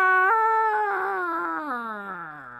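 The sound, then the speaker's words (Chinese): A rooster, the star official Mao Ri Xing Guan shown as a rooster six or seven chi tall standing on a hillside, crows once in a long, strained call that steps up in pitch, holds fairly steady, then sags downward and trails off toward the end. No talking accompanies it. “悟空抬头一看，原来呀，那卯日星官是一只六七尺高的大公鸡，正站在山坡上咯咯的叫呢。”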